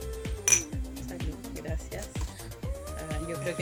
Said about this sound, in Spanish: Bueno, entonces hacemos el salud, salud.